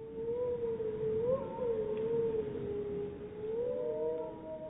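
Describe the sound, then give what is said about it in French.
Several wolves of a pack howl together in a sustained chorus, long wavering tones rising and falling and overlapping, over a faint background rumble with no talking. “Le but en fait d'enregistrer les hurlements, euh, c'est d'essayer en fait d'estimer premièrement le nombre de loups qu'il y a dans la meute et aussi de voir s'il y a eu reproduction ou pas au sein de la meute”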